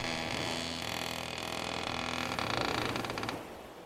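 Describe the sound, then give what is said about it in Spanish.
A heavy wood and metal door creaks open in one long, strained groan as a person pushes against it with full force and body weight, fairly loud, with a low mechanical hum underneath before the sound drops away near the end. “Ejerzo toda la fuerza que puedo sobre la pesada puerta de madera y metal. Mi cuerpo se deja caer contra esta, y comienza a moverse.”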